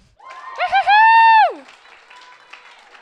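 An audience applauds as a speaker is invited up. A loud, high whooping cry with two quick yelps, then a long held note that slides down, rings out first, and softer clapping and crowd noise carry on after it.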